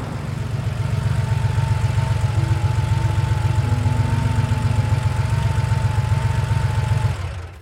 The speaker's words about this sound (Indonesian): Terdengar suara mobil berhenti.